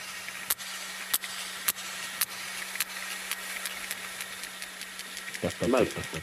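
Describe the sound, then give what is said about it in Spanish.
Sperm whale echolocation clicks, made when the whale is down deep, has found something and is approaching it: sharp, dry ticks repeating at a steady beat that gradually quickens toward the end, over constant hiss and a low hum, with a voice briefly speaking at the end. “es cuando ya está abajo eh, el cachalote y ya encontró algo eh, y se va acercando”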